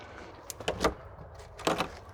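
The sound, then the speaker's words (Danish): The handle of a locked door at a drop-in centre for women is tried twice in quick succession, each attempt a short burst of metallic rattling and clunking against a door that stays shut, with quiet between. “så er der låst. Nogle gange har vi låst døre.”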